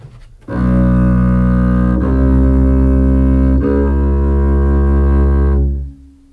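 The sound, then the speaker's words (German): A double bass plays three long, sustained low notes in a row, each bowed tone stepping up by a semitone with a brief break between them, rich and resonant with no talking. “Für für drei Halbtöne brauchen Sie die ganze Handbreite. Für drei Halbtöne. Äh, zum Beispiel so.”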